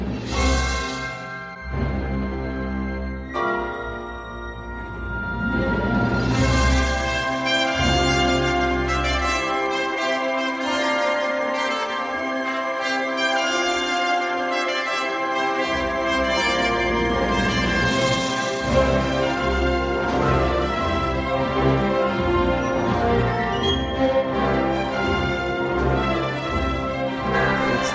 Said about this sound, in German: Da haben mehr als 120 Musiker des WDR Rundfunkorchesters Köln und der Filmharmonische Chor Prags dieses Stück und auch diverse andere Stücke